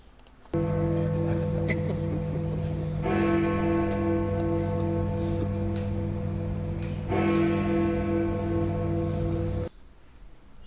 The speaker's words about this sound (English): the steady, regular bongs which were broadcast across the nation to BBC are one of symbol of stability and continuity